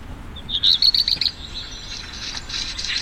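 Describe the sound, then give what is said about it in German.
A black redstart's song played from an app: a short, clear phrase of quick high whistled notes, followed by a softer, scratchy crackling rattle, with no voices around it. “Das ist der Gesang vom Hausrotschwanz.”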